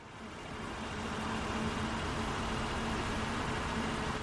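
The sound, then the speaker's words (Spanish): A car on a street in Madrid in fine rain on a winter afternoon, January 2023: a steady wash of wet road hiss with a low engine rumble underneath, swelling in over the first second and then holding constant, with no voices. “En medio de la fina lluvia de una tarde de invierno, María desciende de un coche.”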